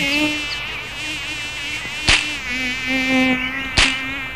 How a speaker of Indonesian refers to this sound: Aduh, nyamuk. Oh, hmm, nggak tahu apa orang lagi bertapa. Aduh, nyamuk.